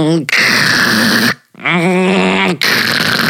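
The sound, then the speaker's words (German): A voice imitates motorized window blinds being played with: three loud, strained, buzzing drones split by short pauses, the middle one wobbling in pitch like a struggling motor. “Und dann hatte irgendjemand diebische Freude daran, mit diesen äh, Jalousien rumzuspielen und du Nein.”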